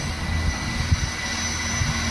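A heavy engine drones steadily and fairly loud, with a deep low rumble, a constant mechanical hum and a few soft low thumps, from a fully autonomous agricultural tractor checking a lettuce plantation, with no one talking.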